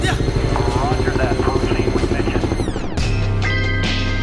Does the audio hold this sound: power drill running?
no